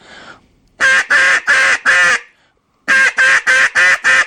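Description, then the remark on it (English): Loud, raspy hen-duck quacks blown on a duck call to get ducks' attention: a run of four evenly spaced quacks, a short pause, then five more in the same steady rhythm, with no talking. “I'm going to hit four or five loud, big hens on a duck call”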